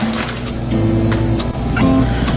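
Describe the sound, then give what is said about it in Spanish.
A blender grinds two packages of Marías cookies into crumbs for a pie crust, a loud steady motor whine that shifts pitch slightly, mixed with crunchy rattling bursts throughout; no one speaks. “El primer paso es la costra del pay y esa la voy a comenzar a preparar moliendo dos paquetes de galletas marías en la licuadora.”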